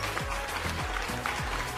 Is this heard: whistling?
no